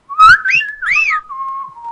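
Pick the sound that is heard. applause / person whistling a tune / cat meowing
person whistling a tune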